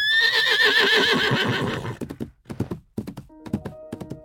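A loud racehorse whinny on a country estate rises and quavers for about two seconds, then gives way to a series of sharp hoof clops and thuds.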